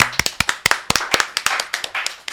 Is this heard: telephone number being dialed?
no